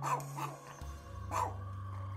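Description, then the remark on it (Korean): A small Yorkshire terrier barks sharply in a few quick yaps, then lets out a low, steady growl that rumbles on underneath, fairly loud; the dog is baring its teeth, drooling and barking at the top of a refrigerator inside a home in the evening. “소리치며 문을 열고 불을 켰더니 그 친구의 개가 우리 집 냉장고 위를 보면서 이빨을 드러내며 짖고 있었다.”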